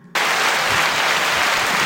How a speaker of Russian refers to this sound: А, например, когда нам не хватает э, аплодисментов или э, ну, как, какого-то взаимодействия с публикой.